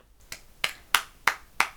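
Five crisp hand claps in an even, steady rhythm, close and fairly loud, each a sharp slap with quiet gaps between and no voices.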